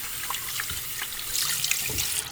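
Tap water runs steadily into a sink while hands are washed beneath it, a continuous splashing hiss with small irregular splatters and no voices.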